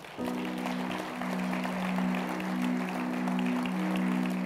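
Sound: audience clapping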